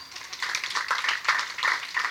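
An audience applauds steadily, many hands clapping in a dense, crackling wash that swells in brief surges and carries on for the whole two seconds with no voices.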